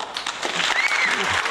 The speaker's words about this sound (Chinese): 那么接下来我们就要有请我们的主唱送给孩子干爸的礼物，来掌声欢迎他。